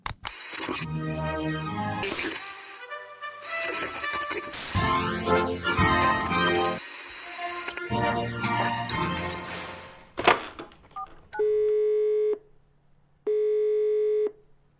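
Two steady electronic ringback tones of an outgoing phone call, about a second each, separated by a short pause, follow a stretch of dense, busy sound. The rings are clear and fairly loud.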